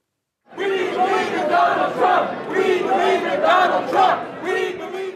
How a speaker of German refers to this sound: Wir glauben an Donald Trump, skandieren Fans. Trump-Anhängerinnen und Anhänger sind am Kongress allgegenwärtig. Sie sind nicht nur laut, sondern auch unübersehbar.